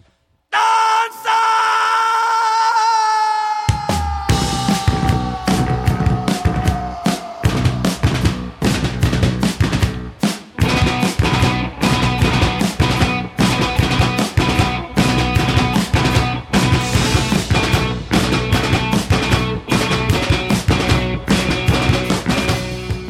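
A sustained, wavering tone opens before a loud live band crashes in with pounding drums, dense distorted instruments and shouted, yelling vocals driving hard through to the end, in a live radio session recorded for KEXP.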